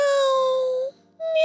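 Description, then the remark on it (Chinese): Two cats, Nana and Hachi, meow as they greet their owner coming home from work: a long, steady, high-pitched cry that fades off, then after a short pause a second meow begins. Both are loud and clear, with no talking. “她的两只猫咪娜娜还有哈奇正在迎接她。”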